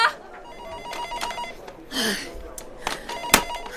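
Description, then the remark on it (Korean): A telephone bell rings in short bursts over a busy office background at the entertainment desk of a sports news outlet, with a few thumps and clatters and faint voices murmuring. “아, 야, 전화 안 받아?”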